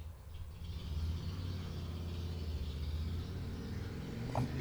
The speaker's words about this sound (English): what's funny about that motorcycle he is he is on a street and he's actually crossing vermont avenue and he's he obeyed the traffic signs and, which was cool